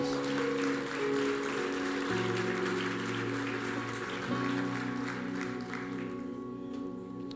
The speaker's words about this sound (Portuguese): Você pode dar um glória a Deus e aplaudir ao Senhor, irmãos?